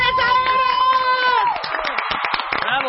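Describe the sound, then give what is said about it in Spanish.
Studio audience applause for visiting air traffic controllers on the W Radio show Lo mejor del año con Marta de Baile: a dense, steady patter of many hands clapping, mixed with cheers and whoops, following a brief burst of sustained, tonal cheering at the start. “Un aplauso para los controladores.”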